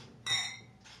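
Glasses clink in a toast: a bright glass clink rings out sharply, its high metallic tone lingering briefly before a second lighter chime follows, with faint background murmur underneath.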